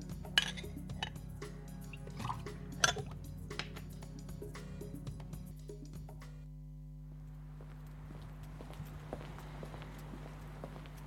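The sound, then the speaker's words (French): Glass clinks and scattered taps over a low steady hum give way to a soft, continuous hiss of rain falling in a city, with scattered patters, moderately quiet and constant for the last few seconds. “En plus, il pleut.”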